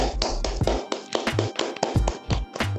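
Applause from a small group for a departing member, a steady patter of overlapping hand claps with sharp, bright bursts and some dull thumps, fairly loud and uneven in rhythm, with no talking.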